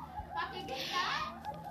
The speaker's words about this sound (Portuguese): Ah, desculpe o barulho de fundos, é que eu tô gravando na minha sala, e meus irmãos estão vendo televisão.